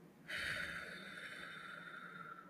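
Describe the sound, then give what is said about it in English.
A long, steady deep breath blown out after inhaling and holding it a few seconds, as a relaxing deep-breathing exercise. A breathy hiss starts abruptly, holds for about two seconds and slowly eases off, with no talking. “and then blow out?”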